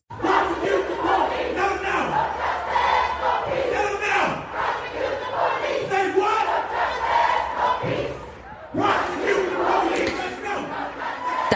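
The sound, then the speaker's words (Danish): A large crowd of about 15,000 demonstrators in Copenhagen, Denmark, protesting against racism in the USA, chants slogans in loud, rhythmic unison, voices rising and falling in repeated phrases, with a brief dip around the eighth second before the chanting surges back. “blev øh, råbt forskellige øh, slogans i går, da 15.000 mennesker i København demonstrerede.”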